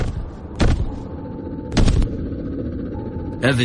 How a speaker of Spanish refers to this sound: Luego empezaron a oír ruidos de golpes, como si alguien estuviera llamando a la puerta. Cuando iban a ver nunca había nadie.